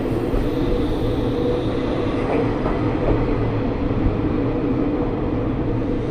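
The Ai Yoshinogawa sightseeing trolley train on the Tokushima Line in Japan, running from Awa-Ikeda toward Sadamitsu, rumbles steadily along the rails, a continuous low roar with faint clicks and rattles from the wheels and cars, heard from on board with no talking.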